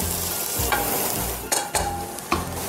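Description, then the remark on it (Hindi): Onions sizzle steadily in hot oil in a pan, being fried until browned for a mutton dish, while a spoon scrapes and stirs through them several times, each stroke a short clatter over the continuous frying hiss. No one speaks. “अब इस पैन में तेल डालना जैसे ही तेल गर्म हो जाए इसमें प्याज डालेंगे प्याज को अच्छे से भूनना है जैसे ही प्याज भुन जाएगा बाकी के सब मसाले डाल देंगे”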